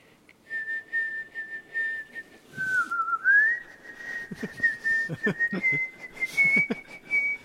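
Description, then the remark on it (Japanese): A person whistles a slow melody with long sustained notes and gentle pitch glides, fairly loud, with soft breathy sounds and light background noise underneath. “口笛ですね口笛ですねこれはなるほどねこう夕暮れに染まる海を眺めながらこう口笛なるほどシチュエーション込みで、うん、ただこの息のそうなんですよねこの方ね多分こう息を吸う時も口笛吹けるタイプの人”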